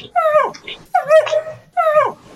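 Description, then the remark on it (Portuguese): A dog named Titi whimpers and whines three times in quick succession, each cry drawn out and falling in pitch, fairly loud, with a rough growly edge between cries. “Tô ouvindo o Titi. Titi, eu tô ouvindo.”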